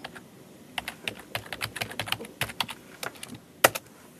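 Rapid typing of a web address on a computer keyboard, a quick run of clicky keystrokes at an uneven pace, fairly clear, ending with one sharper, louder key press near the end.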